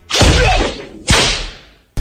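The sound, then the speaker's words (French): Two loud, sharp whip cracks about a second apart, each with a swishing, ringing tail that fades, and a third crack starting just as the sound cuts off. No voices. “on va t'infliger des coups de fouet par eux Oh oh oh.”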